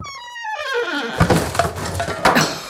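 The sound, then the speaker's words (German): A drawn-out, high squeak slides steadily downward in pitch like an old hinge, followed by a clutter of creaks, knocks and rattling thuds in an office being cleared out. No one speaks. “Also ihr hört es schon, es quietscht und knarrt und überall hängen Spinnweben.”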